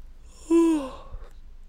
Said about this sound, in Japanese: あ眠くなっちゃったちょっと見た直後に撮ってるんであくびしました